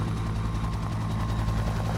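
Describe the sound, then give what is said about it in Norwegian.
A helicopter flying people to a hospital in Takwapa drones steadily, its low rotor thump pulsing rhythmically under a continuous engine roar that stays loud and even throughout. “Så blir vi flydd i helikopteret til eh, Takwapa, et sykehus.”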